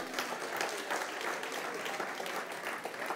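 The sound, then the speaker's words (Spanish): Steady audience applause fills the whole stretch, a dense, continuous patter of many hands clapping at a consistent loudness, with no voices standing out. “Si le va a dar el aplauso, déselo bien.”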